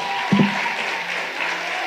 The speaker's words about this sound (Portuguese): Vamos aplaudir aqui